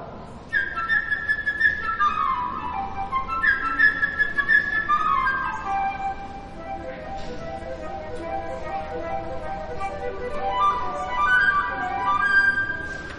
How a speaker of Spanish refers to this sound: Un pajarito ligero y curioso con plumas como la seda, la flauta